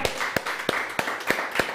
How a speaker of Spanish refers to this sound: Fuerte el aplauso, fuerte.